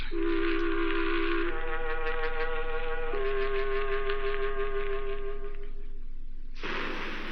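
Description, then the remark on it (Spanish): The Radio Minería news network's gong signal: three long, ringing tones in a row, each shifting slightly in pitch, with a shimmering, pulsing overtone, then cut off by a brief burst of hiss. “Al toque de gong, sírvase conectar.”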